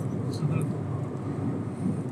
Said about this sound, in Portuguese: Barulho do ônibus.